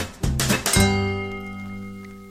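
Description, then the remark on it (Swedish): Wine glasses clink together in a toast, two bright taps followed by a clear ringing tone that slowly fades out. No voices, moderately loud. “Ska, ska vi bara skåla först i det här innan vi går på ostbågarna?”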